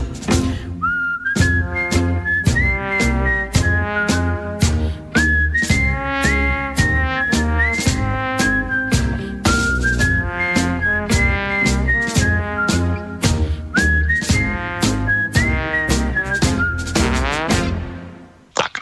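A song plays steadily with a clear whistled melody carried on top of a rhythmic band accompaniment with regular beats, loud and continuous, with no voices talking.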